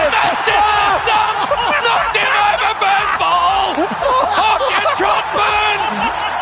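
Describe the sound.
A huge cricket stadium crowd roars loudly and continuously, a dense wall of cheering, as Mitchell Starc takes Rory Burns' wicket with the very first ball of the Ashes series, while an excited Triple M commentator shouts over the top.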